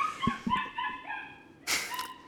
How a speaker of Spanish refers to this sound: Se están peleando los perros. Se están matando los perros por acá, ignórenlos.